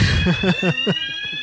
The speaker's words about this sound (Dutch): Ja, we zijn dus heel even onderbroken door het brandalarm.